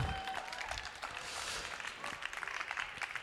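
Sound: audience applause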